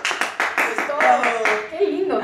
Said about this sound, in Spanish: Muchachos, ayúdenme aplaudiendo, por favor